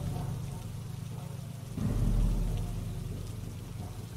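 Steady rain hisses throughout, and partway in a low, rolling rumble of thunder swells up and slowly fades beneath the downpour. No one speaks.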